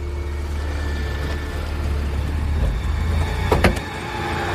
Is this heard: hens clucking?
no